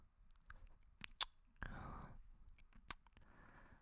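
Intimate ASMR ear-licking mouth sounds: soft wet clicks and smacks scattered across a quiet background, with a longer slurping, moist stretch in the middle. No one speaks.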